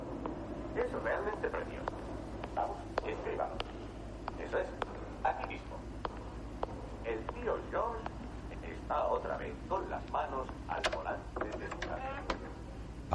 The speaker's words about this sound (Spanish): Camina por el pasillo donde se oye una radio.